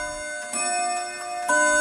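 A clock in the next room chimes the hour with two bright, ringing strikes about a second apart, each note sustaining and slowly fading into the next, heard alone.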